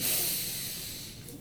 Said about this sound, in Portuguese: E respira prestando atenção no caminho que o ar está fazendo. Justamente, tira o foco da cabeça.